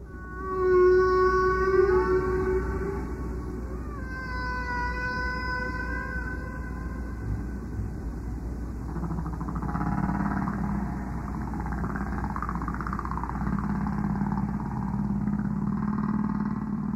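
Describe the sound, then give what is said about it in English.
Long, sliding tonal calls with rich harmonics rise and fall over a steady low rumble, followed by warbling, wavering moans: recorded whale song from Roger Payne's whale tape, moderately loud and echoing, with no voices. “That was Moth Prof Roger Payne's beloved whale tape.”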